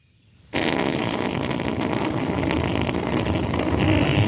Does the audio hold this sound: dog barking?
no